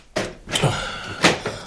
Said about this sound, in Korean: 남편이 현관문을 열고 밖으로 고개를 내밀었다.